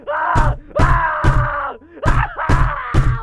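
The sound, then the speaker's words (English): A man dressed as a clown screams and wails loudly in long, drawn-out bursts while banging on a classroom door, heavy thuds striking repeatedly between and under the cries. “Just then, the most terrifying thing ever happened one of the men, dressed as a clown, ran up to the class door, banging and screaming.”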